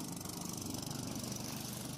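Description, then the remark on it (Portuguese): A boat engine drones steadily and loudly during a crossing of the Baía de Cachoeirão, a constant low rumble with a rough, pulsing texture and no pauses or voices over it. “E ela me disse que o que ficou gravado na memória dessa travessia foi o barulho do motor, alto, constante e um pouco incômodo.”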